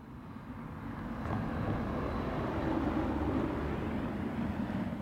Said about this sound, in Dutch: Een auto rijdt voorbij in de Koos Ayalstraat volgens mij